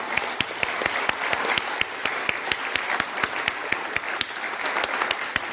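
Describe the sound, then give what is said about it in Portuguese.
A crowd at a church in Brazil claps steadily for several seconds for the pastor, a dense wash of applause with sharp individual claps popping out in an even, sustained rhythm, no voices over it. “And won't you give him a big hand here? Então dê um aplauso a ele.”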